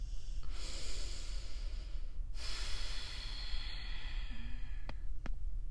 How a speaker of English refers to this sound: Cracking my neck.